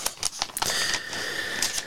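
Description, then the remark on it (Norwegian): Old paper crackles and rustles as pages are handled, a few sharp crisp snaps at first, then a steady dry rustling. No one speaks. “Det knitrer godt i gammelt papir.”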